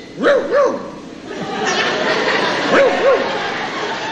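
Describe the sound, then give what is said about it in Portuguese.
A person imitates a dog that has eaten something and did not like it, with two pairs of quick, grumbling woofs, one pair early and another near the end, fairly loud over a steady background hiss. “O cachorro vira lá por exemplo, parece que comeu e não gostou. Ele faz assim.”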